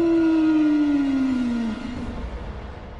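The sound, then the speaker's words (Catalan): A single long, mournful wolf howl, held as one steady note that slowly slides downward in pitch before trailing off into a faint background hiss. No one is speaking. “Era el llop ferotge que cridava d'aquesta manera quan tenia l'estómac buit.”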